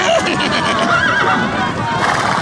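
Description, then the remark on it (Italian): A horse whinnies once in a brief, wavering neigh, rising and falling over a dense, noisy background with a hint of hooves and voices. “giù da cavallo! E ognuno prenda il proprio bottino!”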